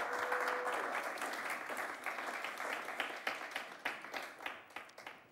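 A crowd applauds steadily, a dense wash of many hands clapping that gradually thins out toward the end, with a brief faint tone at the start.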